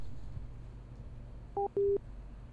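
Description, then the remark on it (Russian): A telephone busy tone after a listener's call to a radio request show dropped: two short, steady electronic beeps in quick succession, fairly loud, over a quiet low hum with no voices. “Вот э, перезвоните еще раз, мы только что пытались с вами поговорить.”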